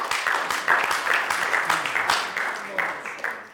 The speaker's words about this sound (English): It wasn't much of an applause, that really.